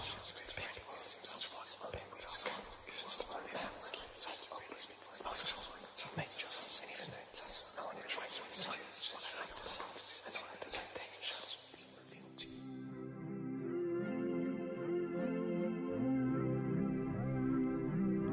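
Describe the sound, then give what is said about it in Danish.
Eerie, breathy whispering swirls for about twelve seconds, then gives way to a sustained, droning tonal hum, a spooky ghost-like sound effect with no clear speech. “okay, det er altså ikke et ægte spøgelse, man kan høre her. Men det er bare lige for at give jer spøgelsesfornemmelsen.”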